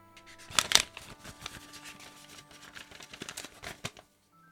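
Paper slips marked with team numbers rustle and crinkle in a bowl as hands dig through them to pick one out, a busy scatter of crisp, dry crackles with a sharper burst near the start, no voices.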